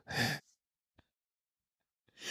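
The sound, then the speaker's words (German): A voice imitates heavy, breathy moaning, as in a prank call on an old landline telephone: one long sighing exhale, a pause with a faint click, then another breathy moan starting at the end, fairly loud, with no words. “Was ist denn ein Stöhnanruf? Ja, wie früher am Telefon.”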